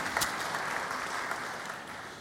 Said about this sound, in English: Round of applause for that.